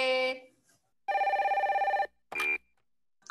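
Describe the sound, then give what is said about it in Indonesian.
An outgoing phone call's ringing tone: a brief electronic beep, then a loud, warbling ring lasting about a second, and another short tone after a pause, all clear with no voices. “Oke, aku mau telepon dulu kakaknya ya.”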